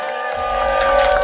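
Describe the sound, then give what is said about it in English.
A live show audience cheers loudly, a dense steady roar of many voices and whoops that swells slightly over the short stretch, with no single voice standing out. “Make some noise!”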